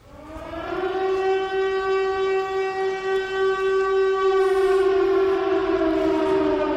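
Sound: alarm siren sound effect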